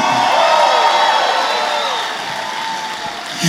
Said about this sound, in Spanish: Alguien está supuesto a dar un grito de gloria aquí.